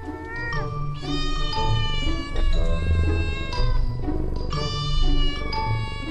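A cat meows repeatedly, a string of drawn-out, fairly loud cries one after another, with a low steady rumble running underneath.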